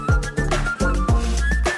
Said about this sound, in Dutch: Het is toch een heel leuk catchy nummer, hè? Je hoort rap. Er is folky zang, er is een eh, fluit ook.